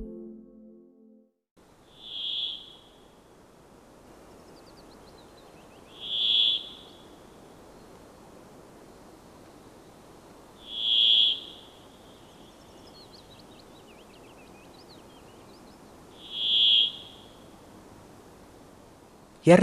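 A brambling's monotonous wheezing whistle song, four drawn-out buzzy notes repeated slowly at even intervals of several seconds, clear over a steady low background hiss of forest ambience.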